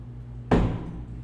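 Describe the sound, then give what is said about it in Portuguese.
One sharp bang of an object struck down on a hard surface, used like a judge's sentencing gavel, ringing briefly before fading into a low steady background hum. “vamos, vamos imaginar que eu usaria isso daqui como aquele martelinho para sentenciar”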